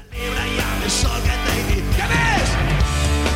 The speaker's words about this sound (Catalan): Aquest que sona és ell també en un dels seus concerts